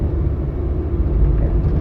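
A steady low rumble of passing car traffic fills the brief recording, loud and continuous with a dense engine drone and no voices.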